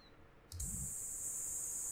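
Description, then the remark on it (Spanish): Cicadas in Japan in midsummer buzz in a loud, steady, high-pitched drone that switches on abruptly after a brief quiet moment and holds without a break, with a soft low thump near the start and no voices. “no sé si se puede escuchar el sonido de las cigarras, ya estamos en plena época veraniega un sonido 100% característico Nippon que es el de las, de las cigarras,”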